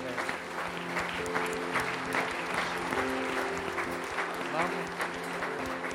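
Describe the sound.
An audience claps steadily in welcome, a dense, sustained wave of applause filling the room for several seconds, with a low sustained tone and faint voices underneath.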